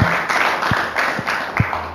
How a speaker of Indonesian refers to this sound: Kita semua amin. Dengan tepuk tangan buat Tuhan kita.